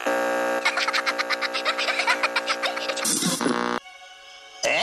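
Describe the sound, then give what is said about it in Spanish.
Buzzy electronic warbling from a sci-fi-style transmitter pulses rapidly in a steady rhythm, then breaks into harsh bursts of crackling static, drops to a thin droning tone, and crackles loudly again at the end. “esto que estás oyendo no es estática. Es mi super ultra hiper ciber tecnificado transmisor que me permite de esta cabina con mi holograma cuántico de la era atómica.”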